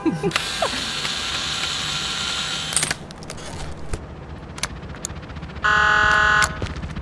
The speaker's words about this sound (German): Ah, ich muss an das Wartungspanel ran. Ah, hast du einen Schraubenzieher?